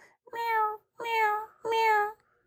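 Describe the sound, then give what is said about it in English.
A wet orange kitten meows three times in a steady rhythm, each cry high-pitched, drawn out and plaintive, heard clearly with nothing else in the background. “She opened the door a crack, and in walked a wet orange kitten”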